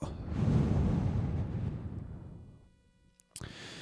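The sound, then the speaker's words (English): A long, slow exhale during a breathing exercise, a loud breathy rush that gradually fades over a couple of seconds into near silence before a brief new breath sound starts; the inhale before it was shorter than the exhale. “And you'll notice that my inhale was actually shorter than my exhale.”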